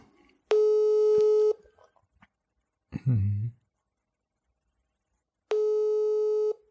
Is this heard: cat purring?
no